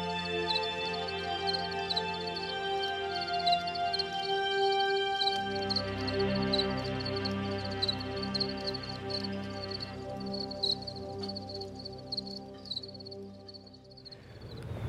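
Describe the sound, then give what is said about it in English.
A lone male cricket, left over after a cricket harvest, chirps in a steady, repeating rhythm, its high-pitched pulses clear over a continuous low droning hum, with no voices. “So there's a single cricket who managed to outsmart us as we harvested them.”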